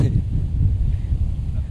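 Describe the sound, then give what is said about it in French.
Strong wind buffets the microphone in a continuous low rumble, loud and steady throughout with no pauses. “Il y a beaucoup de vent, beaucoup de vent.”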